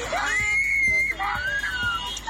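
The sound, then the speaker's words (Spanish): A young girl cries and screams in two long, high-pitched wails that rise and hold, loud, with some background noise underneath, as an elderly man attacks a family car in traffic in Churubusco. “En el video se puede escuchar el llanto de una menor de edad, sin embargo el anciano continúa con la agresión.”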